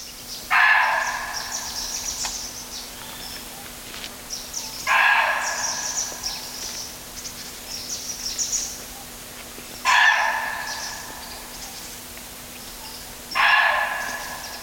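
A muntjac deer's alarm call: four loud, harsh, dog-like barks spaced roughly four to five seconds apart, each a short raspy burst over a faint steady hum, with no talking.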